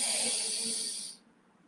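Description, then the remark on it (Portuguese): A single deep, deliberate conscious breath, airy, rushing steadily for about a second before cutting off into near silence. No one speaks. “Mas uma respiração consciente, aquela de.”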